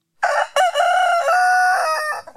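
A single rooster crow rings out loud, a bright, strained call of about two seconds that starts with a short burst, then holds a long quavering note before trailing off.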